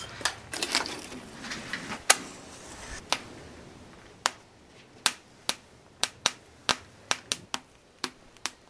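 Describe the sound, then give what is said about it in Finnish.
A small campfire catching after being lit with matches: a burst of dense crackling, then sharp, loud pops and snaps coming at irregular intervals, getting more frequent toward the end. No one speaks. “Sä sait sen syttymään hyvin,”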